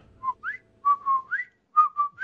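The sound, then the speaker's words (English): Dusty the cockatiel whistles a repeating three-part phrase: a steady mid note followed by a rising upward slide, sung three times with short pauses, clear and fairly loud. “Dusty the cockatiel is a beautiful bird, and it tweets, and it's it's it's a wonderful bird in every way.”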